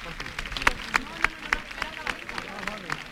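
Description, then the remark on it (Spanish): A crowd applauds in the open air in an ovation as the bell stops and a religious procession float is lowered, with sharp, fairly regular claps standing out above a steady wash of clapping and murmuring voices. “La campana se detiene, se baja el trono y la ovación del público.”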